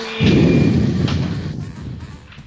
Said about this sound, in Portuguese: Impressora, né? Desculpa. É, vai. Pronto, vou apertar o mudo. Caraca, que barulhão, mano. É uma matricial que ele tem ali. Não é? Tá imprimida a correção do imposto de renda.